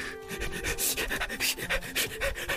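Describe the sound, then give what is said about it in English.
A dog sniffs busily, with a rapid series of short, breathy huffs and snuffles in an uneven rhythm, plus some faint rubbing, and no talking. “so I'm gonna sniff around till I find you.”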